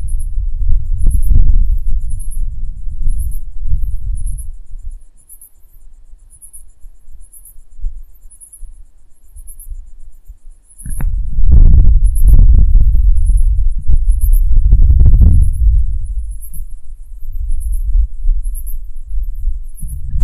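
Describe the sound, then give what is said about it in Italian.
Crickets chirp steadily in a fast, regular rhythm, high-pitched and continuous, over a low outdoor rumble with bursts of wind or handling noise and no voices. “sentimenti di grilli. Che spettacolo!”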